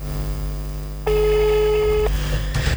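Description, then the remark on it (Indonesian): A telephone busy signal as a call to a colleague fails to connect: one steady electronic beep lasting about a second, fairly loud over a low background hum, followed by a short pause and a faint rustle, with no one speaking. “Ya ternyata rekan kita nggak bisa ditelepon nih.”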